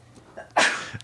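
A single sharp sneeze bursts out, a brief explosive hiss of breath after a quick intake, then quiet.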